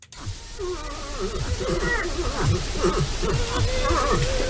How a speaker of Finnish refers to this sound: Hirvi siis kuulostaa tältä. Hirviä oli tosi paljon liikkeellä.